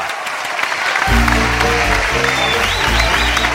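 Loud, steady audience applause fills the room, a dense crackle of many hands clapping, with upbeat music kicking in underneath after the first second.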